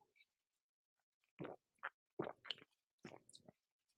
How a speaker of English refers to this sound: Let me have a sip of uh, Diet Coke if you wouldn't mind. I'm like addicted.